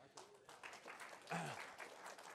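An audience claps steadily for a couple of seconds, giving a man a hand clap at the speaker's request, a dense crackle of many hands at moderate loudness, with a brief voice calling out partway through.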